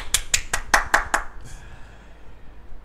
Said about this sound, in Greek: Αχ, είχα βάλει να παίξω χειροκροτήματα την ώρα που θα έλεγα το Βόλο. Α, θα χειροκροτήσω εγώ. Ξαναπέστε να χειροκροτήσω.